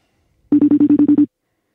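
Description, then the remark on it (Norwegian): A telephone rings on an outgoing call to Sondre Tronstad in the Netherlands: a quick burst of about eight short, evenly pulsed electronic tones, loud, with no voices and silence before and after. “Nå må jeg huske å eh, hilse til Sondre Tronstad eh, når han nå forhåpentligvis tar telefonen i eh, Nederland.”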